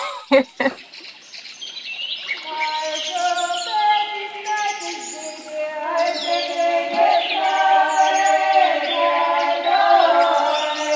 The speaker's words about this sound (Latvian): Tā skan salāts stāvkrasts, taču šajā ierakstā labi var dzirdēt arī apkārtējās dzīvās radības, jo īpaši putnu centību sacenšoties ar dziedātājām.